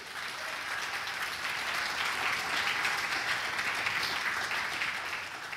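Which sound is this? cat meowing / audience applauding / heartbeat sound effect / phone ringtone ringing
audience applauding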